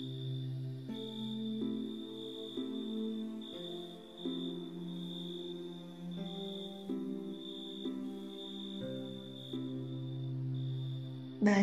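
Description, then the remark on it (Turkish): Crickets chirp at night in a steady, high-pitched trill that pulses continuously, sitting over a low, sustained humming drone whose tones shift slowly; no one speaks. “Cırcır böceklerinin sesi.”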